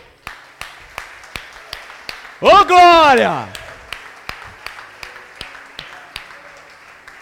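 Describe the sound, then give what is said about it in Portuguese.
An audience claps in steady unison to applaud the Lord, sharp regular beats at roughly three per second throughout, while a voice briefly shouts an exclamation over the clapping midway. “Vamos aplaudir ao Senhor, todo mundo?”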